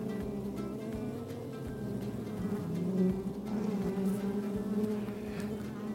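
Bees and bumblebees buzz steadily over a strawberry field, flying among the strawberry plants and blossoms, a continuous droning hum with several overlapping insects and faint sounds of passing cars, no voices present.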